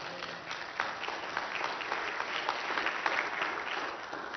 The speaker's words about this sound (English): Come on, let me see you clap your hands.